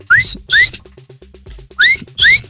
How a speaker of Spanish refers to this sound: ¿Cuántos silbatazos diste?